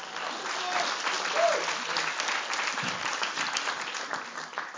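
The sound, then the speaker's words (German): A crowd at a Christian gathering applauds for Jesus, clapping steadily in sustained applause, dense and even throughout, with a few faint voices and a brief whistle-like tone rising above it early on. “Und jetzt geben wir mal einen Applaus unserem Herrn Jesus.”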